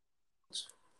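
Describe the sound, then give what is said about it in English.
A dog lets out a single short, sharp snort or huff after a moment of silence, with a breathy tail fading quickly. “Sorry about my dog”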